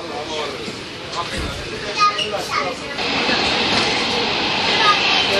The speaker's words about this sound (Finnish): Eli kyllä tämä metro on osoittautumassa käteväksi välineeksi. Ja kuten kuuluu, niin ainakin Ruoholahteen asti kansaa riittää.